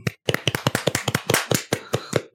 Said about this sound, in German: Offiziell, Leute. Einmal Applaus für nützliche Podcast.